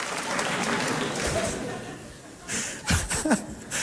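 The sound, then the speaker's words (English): A crowd claps steadily in a dense, continuous patter that fades slightly, then a few laughs and voices break through near the end. “Hold your applause.”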